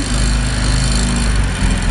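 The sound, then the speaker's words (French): A Citroën 2CV's 602 cc, 25-horsepower two-cylinder engine runs steadily and loud, a throbbing, buzzy drone with a low rhythmic putter that holds even throughout, no voices over it. “Ah, on reconnaît le bruit de la, la 2 chevaux. On reconnaît le bruit du bicylindre là qui est en version 602 cm3 et 25 chevaux”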